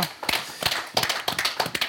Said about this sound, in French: On va applaudir également,